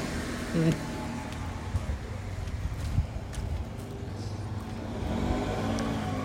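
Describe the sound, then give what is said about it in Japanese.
A car passes by outdoors, its engine and tire rumble steady through a broad wash of road noise and swelling louder near the end. “ね今車にねびっくりしちゃったもんでごめんごめん”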